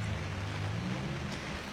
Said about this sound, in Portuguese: vão se molhar, meninos. O importante é fugir da chuva, né